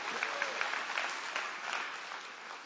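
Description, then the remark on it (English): A church crowd breaks into steady, dense applause, giving the Lord a hand clap for paying off two of the church's loans, many hands clapping at once in a continuous, even wash of sound that holds its level for a few seconds. “Somebody give the Lord a hand clap for that.”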